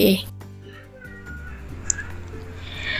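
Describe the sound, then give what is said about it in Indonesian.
A young child who has started to babble makes sounds in the background, starting with a loud, bright squeal and then trailing into softer, drawn-out cooing sounds that continue steadily for a few seconds. “Itu suara anakku yang udah mulai suka ngoceh, tapi nggak apa-apa.”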